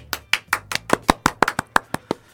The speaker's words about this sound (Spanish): Me tengo que aplaudir yo solo. Sí, solo de lo más triste que vi en mi vida. Nadie lo, lo más patético.